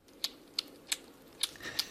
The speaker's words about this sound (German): Und ich habe das Geräusch auch gefunden. Lass uns mal hören, wie so ein Igel schmatzt.